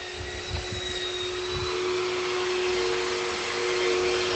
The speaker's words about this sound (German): Kleines Hör, Hör, Hör, kleine Hörprobe nochmal. Das Idyll wird hier natürlich durch ein paar handwerkliche Feinschliffe am Nachbarhaus getrübt. Aber naja, was soll's, ne?